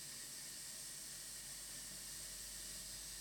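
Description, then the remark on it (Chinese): A faint, steady fizzing hiss of liquid bubbling as a vitamin C effervescent tablet dissolves, a soft high-pitched crackle that holds evenly throughout with no voices. “可以听到它沸腾的声音吗？”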